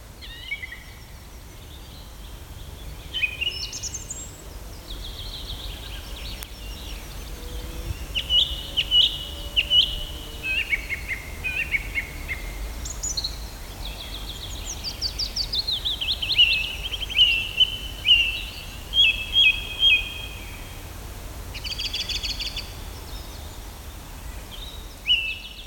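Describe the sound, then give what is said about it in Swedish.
Recorded birdsong taped on 12 May, several species overlapping, with bright chirps, trills and repeated high whistled phrases weaving together over a steady low background hum, no voices. “Ja, vi kan lyssna och höra där vad det är för fåglar som han har lyckats banda.”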